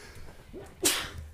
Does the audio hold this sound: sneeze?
yes